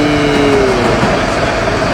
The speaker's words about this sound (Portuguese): Então, é, começou um pequeno barulhinho de, de ônibus aqui no lado. É, espero que não atrapalhe demais a nossa, a nossa transmissão.